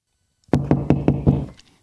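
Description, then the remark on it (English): Five firm, evenly spaced knocks on a door, loud, each a sharp thud with a short boomy ring, followed by quiet. No one speaks. “There's a, there's this door here.”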